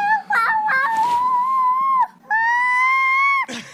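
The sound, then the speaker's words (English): A seven-and-a-half-month-old baby girl screeches loudly, a few choppy babbled syllables giving way to two long, high, sustained squeals separated by a short pause. “It's like it, it sounds like Animal from the Muppets had a baby.”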